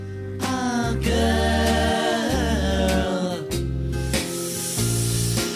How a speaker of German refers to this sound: Am Ende des Refrains ziehen sie nämlich tief und laut Luft ein.